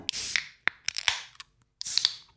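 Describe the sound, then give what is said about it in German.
Several crisp metallic snips of scissors, fairly loud, with a short scraping swish between cuts and a brief pause before a final pair of snips. No one speaks. “Ganz ehrlich, so klingt es, wenn Eier abgeschnitten werden.”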